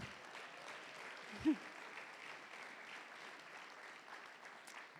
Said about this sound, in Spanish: Démosle un aplauso al Señor.